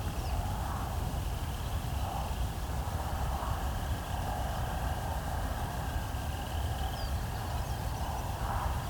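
A steady, low rumbling wash of distant road traffic from cars a couple of miles away, faint and continuous throughout, with no distinct passing vehicles standing out and no voices.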